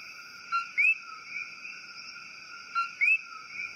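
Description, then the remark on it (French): A male coquí frog gives its two-note call twice, a short low note sliding into a rising whistled note, repeated about two seconds apart over a steady high insect-like night chorus. “les grenouilles et le pterodactylus coquille sont célèbres pour les chants des messieurs grenouilles”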